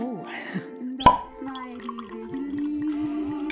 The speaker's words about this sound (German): Ich hab nur ein paar Fläschle Wein. Da mache ich jetzt eins auf.